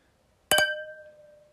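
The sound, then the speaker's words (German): Two glasses clink together in quick succession, bright, leaving a clear ringing tone that slowly fades out. No one speaks. “Klirr.”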